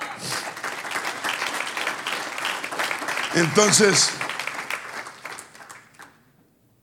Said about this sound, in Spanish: ¿Cuántos dicen gloria? Un aplauso al Señor.